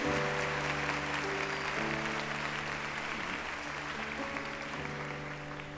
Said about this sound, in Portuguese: Pode aplaudir. Isso mesmo.